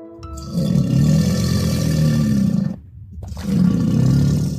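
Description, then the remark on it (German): A crocodile roar sound effect: a deep, rumbling, loud roar in two long guttural bursts separated by a brief silence, with no voices present. “Da haben wir an der gleichen Stelle berichtet, dass in der Unstrut vielleicht ein Krokodil sich herumtreibt.”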